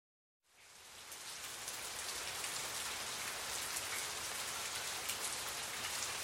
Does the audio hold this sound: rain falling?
yes